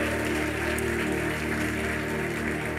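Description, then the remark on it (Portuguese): A crowd applauds Jesus steadily for about three seconds, a dense, even patter of many hands clapping together over a sustained low musical hum, with no voices heard. “Se você crê, aplauda Jesus, glorifica o nome do Senhor.”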